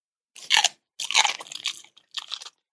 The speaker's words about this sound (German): Dieses liebliche Schmatzen hier ist unser Bello, der gerade sein leckeres Hundeeis genießt. Und auch wenn es schon Anfang September ist und ja eigentlich der Herbst vor der Tür steht, liebt er immer noch seine kühle Erfrischung.